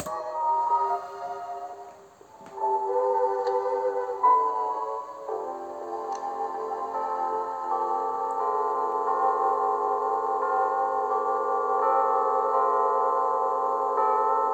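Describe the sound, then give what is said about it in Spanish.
A large old clock chimes a slow melodic tune, its sustained bell-like tones ringing and overlapping in a steady sequence of notes with no talking. “Ese tipo de reloj, o sea, esa tonada de reloj me suena a los animes, como por ejemplo eh, termina la escuela que hace tin, tun, tun, tun, tin, tin, tun.”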